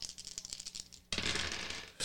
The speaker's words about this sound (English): Roll your dice.